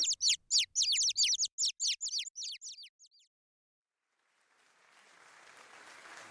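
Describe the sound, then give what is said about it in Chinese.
A quick run of about a dozen high, squeaky chirping cheers, then a brief silence before soft, steady clapping swells up and continues to the end, as villagers gather around Qiuqiu, clapping and cheering. “只见在场所有的村民围绕在球球身边拍拍手，欢呼着。”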